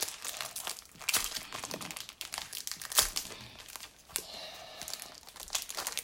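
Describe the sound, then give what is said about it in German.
Crackling crinkle of a foil Pokémon card booster pack, the last pack of the session, being handled and torn open with a brother, with bursts of sharp rustling and tearing scattered throughout and no voices. “Pokémon Pécs, öffnen mit meinem Bruder”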